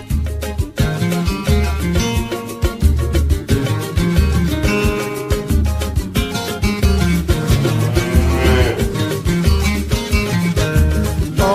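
Lively samba music plays loud and close, with brisk, steady percussion hits driving a full, bright band sound that carries on without a break.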